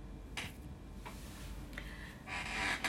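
Several short, scratchy creaks from a chair being sat on come at irregular intervals, ending in a longer, louder creak with a faint squeaky tone. They are quiet overall, with no one speaking.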